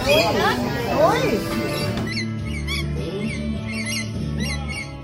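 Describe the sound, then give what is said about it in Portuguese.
Pet parrots, all loose rather than caged, squawk and chirp with repeated bright, high chirps that keep coming in quick bursts over a steady background while a person speaks briefly. “é tudo é tudo, tudo livre aí? Todos os pássaros livres?”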